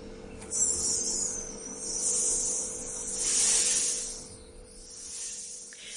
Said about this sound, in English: Whereas an uneven breath might sound like this.